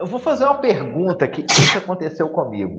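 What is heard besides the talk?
sneeze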